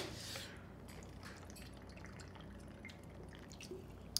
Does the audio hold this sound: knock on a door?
no